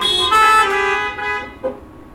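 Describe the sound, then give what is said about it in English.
A car horn blares in one long, loud honk lasting over a second, then trails off with a brief, quieter blip before fading out. No one speaks. “Now that honk goes both ways.”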